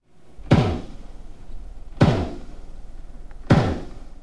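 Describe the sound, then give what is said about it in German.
A pile driver's heavy hammer ramming a monopile, up to eight meters in diameter, into the seabed while building an offshore wind farm: three heavy, booming impacts at a steady pace about one and a half seconds apart, each with a deep low rumble that rings and fades. “Mit schweren Hämmern rammen Unternehmen sogenannte Monopiles, Fälle mit einem Durchmesser von bis zu acht Metern in den Meeresgrund.”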